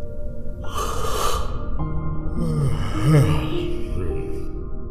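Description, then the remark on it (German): A man's long, drawn-out yawn that opens with a breathy inhale, then stretches into a low, groaning voiced exhale with wavering pitch. It is fairly loud, with no talking. “Dann gähnt er lang und ausgiebig.”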